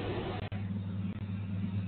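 Bus engines idle and rev up with a steady, deep droning rumble that holds throughout, moderately loud and close, with no voices over it.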